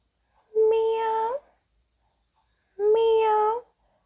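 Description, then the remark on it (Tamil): A person imitates a cat's meow twice, two drawn-out, tonal mews of under a second each, separated by a short pause, clear with no other sounds; it stands for a faint cat voice heard overhead beside a grain storage room, where two children were searching for a lost cat. “ஒரு நாள் அவங்க ரெண்டு பேரும் இந்த தானியங்கள்லாம் போட்டு வைக்கிற ஒரு அறைக்கு பக்கத்தில் விளையாடிட்டு இருந்தாங்களா அப்போது அவங்களோட தலைக்கு மேலே மெல்லிசாக ஒரு குரல் கேட்டுச்சு”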